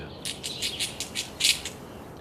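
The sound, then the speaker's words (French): A squirrel chatters in a quick run of about eight sharp, scratchy high-pitched bursts, the loudest near the end. It stands alone at moderate volume with no voices. “Un autre oiseau, un pivert et même un écureuil.”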